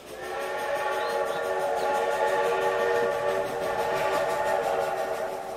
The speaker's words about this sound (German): Jeden Tag fährt die Eisenbahn nach Boston vorbei.